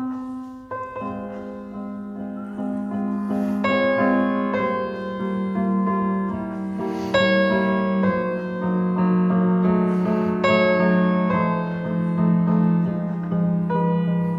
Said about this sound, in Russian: Вот я приведу пример начало прелюдии Шопена «Ми минор» знаменитый